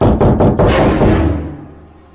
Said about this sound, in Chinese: 那敲门声又响了。这次我听得非常清楚，因为声音近在咫尺，那是从。镜子里面发出来